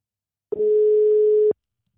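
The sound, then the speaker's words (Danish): A single telephone ringback tone on an outgoing call to a friend: one steady, clear beep lasting about a second, loud, with silence before and after and no voices. “nu ringer vi til Henrik, så vi kan komme i gang med dagens afsnit”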